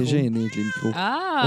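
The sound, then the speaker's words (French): A domestic cat meows loudly, drawn-out and wavering in pitch, with a person speaking briefly over it. “finalement, ça, ça, fait comme quatre podcasts qu'on dit que vous allez peut-être entendre le chat miauler.”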